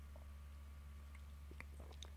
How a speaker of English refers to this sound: Very long one. Bear with me. I'm going to take a sip of coffee.